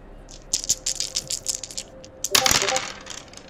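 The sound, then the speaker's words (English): Dice clatter and rattle across a hard tabletop in a quick series of bright clicks, building to a louder tumbling burst before settling, distinct with no voices; the dice are rolled for a notice check in a game. “Give me a notice check and impress me.”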